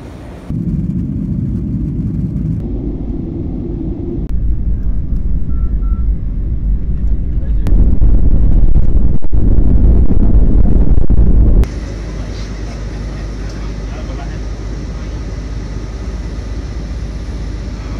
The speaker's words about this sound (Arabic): انا عارف ان مطار دبي كل 90 ثانيه يا طياره يا اما تنزل يا اما تطلع بس ازعاج يعني انا بقالي في ترانزيت حوالي تسع ساعات لا آه الصوت مزعج كل شويه يعني تقريبا دقيقه ونص ويوم مطلع لي طياره كمان